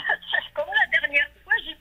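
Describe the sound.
A thin, band-limited voice over a phone line, choppy and fragmented, with brief dropouts as the call signal breaks up, from a caller in an area of France with very poor phone coverage, near Nancy, between Nancy and Metz.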